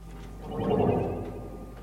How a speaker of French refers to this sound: Une étude électronique.